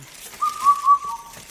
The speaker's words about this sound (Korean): 어? 새가 울어요. 이거 무슨 새요, 할머니?